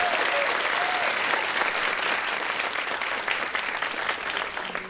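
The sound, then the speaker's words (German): An audience applauds a project where grandmothers and grandfathers bake homemade cakes, a dense wash of many hands clapping at an even, fairly loud level for several seconds, with no one speaking over it. “Und die haben ja, Applaus, super, super Projekt.”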